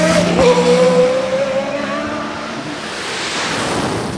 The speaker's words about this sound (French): Il s'engouffra dans la voiture et mit l'auto en marche arrière avant même d'avoir refermé la portière. Il appuya à fond sur l'accélérateur et la voiture recula brusquement